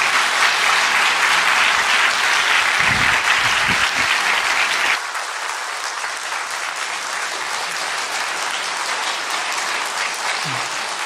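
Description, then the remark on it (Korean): A church audience claps continuously in dense, sustained applause welcoming a visiting pastor, loud and full for about five seconds, then dropping abruptly to a steadier, slightly softer wash of clapping that carries on to the end. “우레와 같은 박수로 환영해 주세요.”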